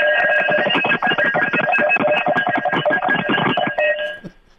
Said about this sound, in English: Uh, okay, so it's a cowbell. So I'm signing stuff, footballs and cowbells, and see, we're a big cowbell university. So, so was, uh, I'm signing some cowbells, and they sound like this.